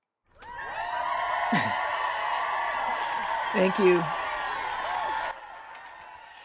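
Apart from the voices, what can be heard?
crowd cheering and applauding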